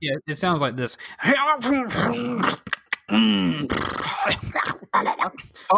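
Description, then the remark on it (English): A person imitates a rough, growling voice speaking the Druidic language, drawn-out guttural syllables that rise and fall in pitch, amid brief speech and a laugh. “Does say this in that weird druid language, though, right?”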